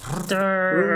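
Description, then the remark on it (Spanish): A voice imitates a toy electric chainsaw of the kind sold at Halloween stores, with a breathy start that settles into a steady, buzzing drone of about a second, loud, with a slight shift in pitch partway through. “Hay unas sierras eléctricas que venden en, lugares de Halloween que son chéveres porque suena así.”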